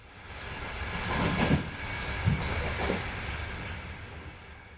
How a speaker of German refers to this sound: Der Regionalexpress aus Ingolstadt kommt uns entgegen. Auch der bringt jetzt Pendler nach Hause.